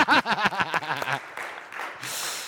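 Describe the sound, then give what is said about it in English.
A voice speaks in quick, pitched bursts, then gives way to a steady wash of audience applause for the speaker's wife, who is present that night, swelling toward the end of the short clip. “Let's give her a pen of applause.”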